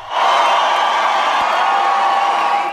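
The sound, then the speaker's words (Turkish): A huge crowd of tens of thousands, gathered in freezing cold in front of Christiansborg Palace, roars with cheers and shouts as King Frederik appears on the parliament building balcony, in a sustained, dense wall of sound, loud and steady for a few seconds without letting up. “Kral Frederik parlamento binasının balkonunda göründüğünde kalabalıktan büyük bir çığlık koptu.”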